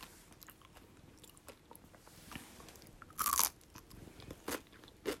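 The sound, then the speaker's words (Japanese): Crunching as a crisp-shelled Kanro gummy pretzel candy is bitten, one loud crackly bite followed by several shorter crunches as it's chewed, with quiet rustling in between and no talking. “分かんないから食べます いい音するよねうん”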